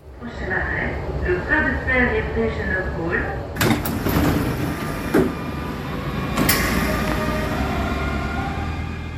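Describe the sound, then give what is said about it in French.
A commuter train of RER line D at the station in Évry, Essonne: a wavering tonal whine fades into steady rumbling, punctuated by sharp clunks like sliding doors, with faint voices in the background. “Évry en Essonne, sur la ligne D du RER.”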